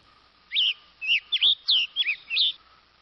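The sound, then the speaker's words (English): A western tanager, of the western United States, sings a quick run of about six short, burry whistled phrases, clear, with brief pauses between them and no voices. “Other birds, like this tanager, have adapted within the same species.”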